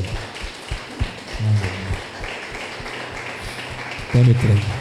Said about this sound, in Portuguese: Dê um aplauso